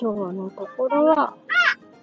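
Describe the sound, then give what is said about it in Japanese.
A woman talks, then a single short, chirpy pedestrian crossing signal tone sounds briefly in the background, fairly faint and bird-like. “あ、信号音だった。”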